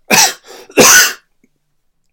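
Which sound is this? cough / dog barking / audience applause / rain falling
cough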